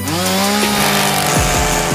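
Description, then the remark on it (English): A STIHL chainsaw engine roars loudly and steadily, its buzzing pitch swinging up and down as the throttle is revved toward the end. No voices are present. “From powerful trimmers, blowers, and chainsaws under the tree to fashionable accessories stuffed in their stockings, the STIHL Holiday Gift Guide is packed with great ideas for everyone on your list.”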